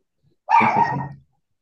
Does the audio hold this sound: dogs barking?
yes